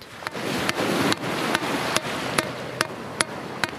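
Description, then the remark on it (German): Sharp, regular hammer blows strike a wooden cover set on a wind turbine foundation in wet sand, hit with full force to fix the foundation, about every half second, roughly nine hits in a row, over a steady rushing background of wind or sea. “Er hält einen Hammer in der Hand. Mit voller Wucht haut er auf das Fundament.”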